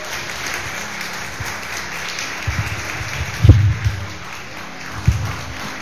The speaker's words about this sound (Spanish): ¿Alguien dice amén? Póngase de pie y aplaude la grandeza del Señor.